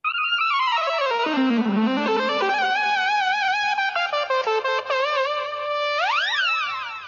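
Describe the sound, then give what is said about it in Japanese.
An EWI (electronic wind instrument) is demonstrated by a guest, playing a continuous synthetic melody with rich buzzy harmonics, swooping down low, climbing through wavering runs with vibrato, then ending in quick rising pitch sweeps. No talking. “なので、その中でのイーウィの演奏だったので、いや、これ惜しいことしたなーってすごい思っていて”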